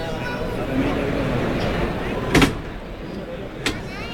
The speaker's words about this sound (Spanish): ahí va hermes cortés abrir la puerta de Toriles